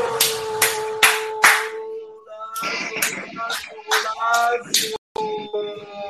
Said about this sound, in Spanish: Estoy inventando nuevos aplausos, estoy inventando nuevos aplausos, tú sabes, para ver cuál de todos ellos me quedo.